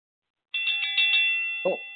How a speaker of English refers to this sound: And there's the bell, ladies and gentlemen. We are now ready.